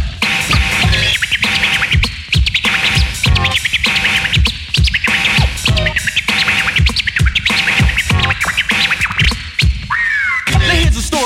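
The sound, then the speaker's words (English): Rapid turntable scratching by a DJ with a chirpy, bird-like quality, quick back-and-forth record cuts stacked over a thumping beat, loud for the whole stretch with no talking. “Now make it chirp.”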